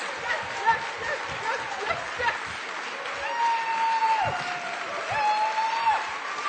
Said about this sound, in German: Und jetzt Feuerwerk, Lichterbogen, Goldbuzzer. Und jetzt ihr. Aufstehen, jubeln, jubeln, jubeln.